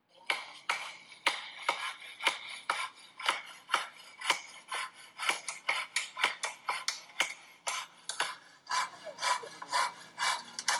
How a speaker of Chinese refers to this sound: 就在官方宣布上述措施的前一天，上海黄浦区老西门街道龙门村居民区内多条弄堂被防疫人员用木板围钉，留下一扇门。在一段视频中，多名防护人员正在黑暗中钉木板，锤子的敲打和锯木头的声音打破了夜晚的宁静。